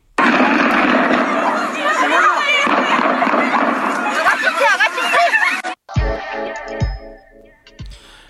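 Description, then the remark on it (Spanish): Near a school, a crowd of young students shouts and screams in panic as they run scared, then the noise cuts out and several sharp gunshots crack in irregular succession, loud. “Este es el momento en el que las balas irrumpen cerca de este colegio y los estudiantes corren asustados.”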